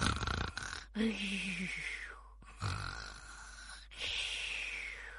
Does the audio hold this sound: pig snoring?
yes